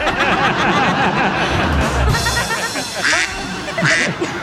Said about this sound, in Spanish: Y el pato dice, cuá, cuá.